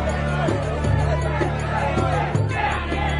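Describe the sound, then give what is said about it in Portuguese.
A large crowd of Israelites gathered at Mizpah murmurs and chatters in a steady, continuous hubbub, many voices blending together at a moderate, even level with no single speaker standing out. “Assim todos eles se reuniram em Mispa.”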